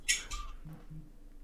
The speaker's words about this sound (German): Oh, Katze, ausrasten.